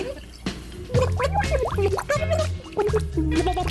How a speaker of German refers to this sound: jetzt leider kurz mal richtig unter Wasser tunken und sie versuchen zu ertränken